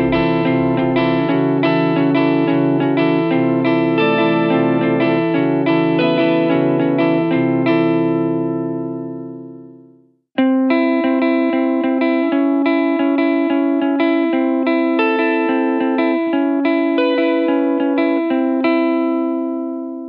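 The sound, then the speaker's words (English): A guitar run through a pitch-shifting effects pedal on its polyphony setting, using pitch shift chords with EaseU SIF technology, gives shimmering, layered chorus- and crystal-like tones. A dense run of notes fades out halfway, then a bright flurry of quick repeated notes follows, with no talking. “So here we got pitch shift chords with EaseU SIF technology create rising or sinking chorus and crystal type effects.”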